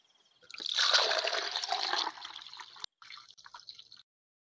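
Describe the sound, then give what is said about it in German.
Fresh spring water trickles and splashes steadily for a few seconds, a bright pour that fades, pauses briefly, then resumes in a lighter, broken spatter before stopping. “Quellwasser-Goldbeere. Frisches Wasser aus dem Breland.”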